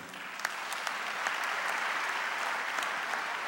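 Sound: audience applauding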